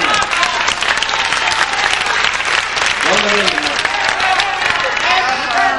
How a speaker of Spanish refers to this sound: Chetumal, desde Chetumal vinieron. Fácil. Y todo por oír a este. Felicidades, un aplauso por Chetumal, ¿verdad?